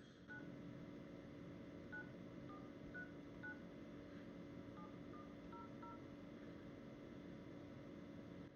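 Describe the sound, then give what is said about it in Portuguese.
Phone keypad dialing tones as someone dials a phone number to place a call, roughly ten short electronic beeps pressed in a quick, uneven sequence over a steady low hum of background noise, then the hum continues alone. “Cada tecla tem um, tem um som, né?”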